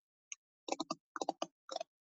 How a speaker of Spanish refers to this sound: Y ahora vamos a tocar el teclado cerca del micrófono.